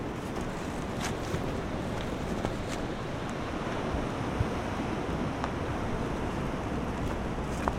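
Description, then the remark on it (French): A steady, broad wash of sea surf rolls on continuously, with occasional faint clicks and splashes as waves break among rocks on a rocky beach, with wind adding a low rumble. “Et, euh, puis on va s'installer ici un peu à l'abri du vent avec les rochers au milieu, avec la mer, la mer devant.”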